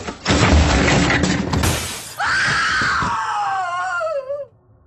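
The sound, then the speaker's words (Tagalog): A loud, shattering crash bursts out for about two seconds, then a woman lets out a long, piercing scream that wavers and slides downward before cutting off. “Maya-maya pa ay may narinig akong malakas na kalabog na sinundan ng nakakabing hiyaw ng isang babae.”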